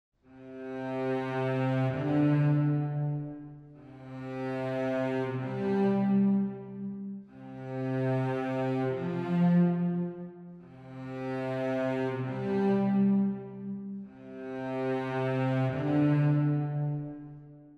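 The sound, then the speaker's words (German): A sustained, buzzy synthesizer tone is played five times on a single key, each note holding about three seconds, with a second pitch stepping in above the low base note as each one sounds; the interval depends on key velocity, a higher velocity giving a larger interval. “Und jetzt ist noch was Schönes, denn abhängig von der Velocity wird das Intervall genommen, und zwar je höher ich eine Velocity habe, desto größer ist auch das Intervall.”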